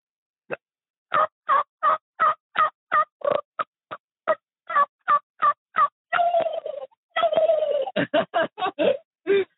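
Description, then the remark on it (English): A person imitates a turkey gobble with only their mouth, using no turkey call device: a rapid string of sharp, gobbling pulses, then a warbling run and a final burst of quick gobbles, loud, with no other voices. “Oh, I'll do a turkey call with no turkey call at all. Just all mouth.”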